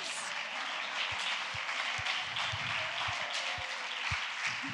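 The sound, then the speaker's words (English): An audience applauds steadily as a man comes up to the front, a dense crackle of many hands clapping at an even level, with a few heavier low thumps spaced through it. “Let's clap him as he comes.”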